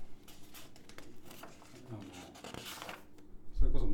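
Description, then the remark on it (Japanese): Dry rustling and scraping of rough, textured magazine paper, like the paper of old Popeye magazine, being handled and shifted, with soft brushing strokes and a louder thump near the end, while someone talks over it. “なんか紙はねこの柄紙っていうのか”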